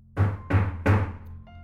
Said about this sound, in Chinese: 可敲门声又响起来了。